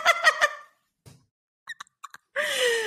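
A bird at a closed window, trying to get in, squawks: three quick harsh calls, a few soft chirps after a pause, then a longer, louder raspy cry. No one speaks.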